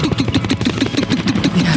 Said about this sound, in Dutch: komt er een helikopter van James Bond.